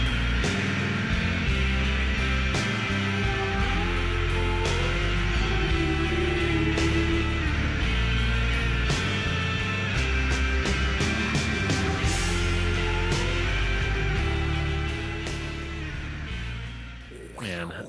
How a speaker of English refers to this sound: there's that like nice high guitar part on top of that. The yeah. But then the crunchy guitars underneath and the synths